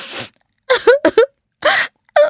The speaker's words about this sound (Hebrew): נשמע לפתע רעש מחריש אוזניים, קול של בכי עז מהדהד בחדר המדרגות.